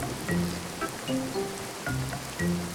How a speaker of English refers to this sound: And the storm is making this game difficult. Both tribes are getting drenched by the rain,